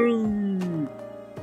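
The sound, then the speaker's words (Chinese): A voice imitates a young lion's roar with one drawn-out, strained cry that slides downward in pitch for nearly a second, then cuts off, leaving quiet and a faint click. “小狮子闭上眼睛，张开大嘴巴，大吼一声：“啊！”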